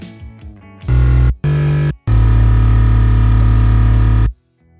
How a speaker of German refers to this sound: Aber da es ein dicker Bass werden soll, legen wir jetzt noch einen Sabbass drunter. Der Sabbass kitzelt die ganz tiefen Frequenzen nochmal heraus und dickt den Sound ordentlich an. Aber hört selbst.